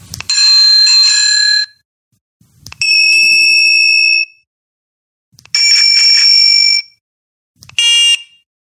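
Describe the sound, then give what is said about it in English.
An electronic bike horn sounds a synthesized bicycle bell ring four times, each a bright, loud, tonal burst about a second long, separated by short silences, the last one shorter and higher. “they usually have multiple sounds that they make. So you can select, you know, maybe a horn sound maybe a bicycle ringing sound, maybe something that is more like a siren or a piercing sound, you know, that sort of thing.”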